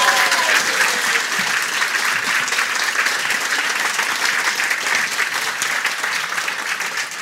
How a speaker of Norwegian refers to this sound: Ta henne godt imot! Applaus